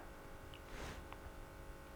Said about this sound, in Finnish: Onko tuo jääkaappi hurisin? On. Joo, jääkaapi. Hurinaa vähän. Voi kuunnella.